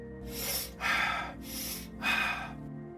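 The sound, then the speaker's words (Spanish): A demonstration of rapid, deep repetitive breathing: forceful inhales and exhales alternate in a steady rhythm, about four loud breaths in three seconds, with no talking. “La respiración repetitiva, más rápida y profunda,”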